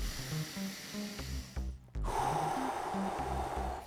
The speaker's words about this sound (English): Let's make space for it. Take a breath. And another one.